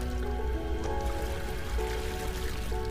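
Water rushes and splashes steadily, a continuous flowing wash of a waterfall and lake in a forest, with soft sustained musical tones drifting over it and no voices.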